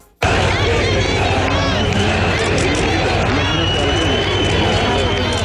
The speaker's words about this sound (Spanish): ha vuelto el tradicional desfile al Paseo de la Castellana de Madrid en formato más reducido, también con limitaciones por la pandemia, pero han vuelto los abucheos y algunos gritos de dimisión contra el presidente del Gobierno, Pedro Sánchez.